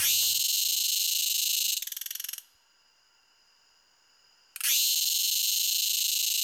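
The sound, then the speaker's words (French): Loud Dundubia terpsichore cicada song, a Thai cicada species: an intense high-pitched buzz that breaks into rapid pulses, drops to a quieter whining tone for a couple of seconds, then surges back to full buzz. “C'est une euh, cigale thaïlandaise.”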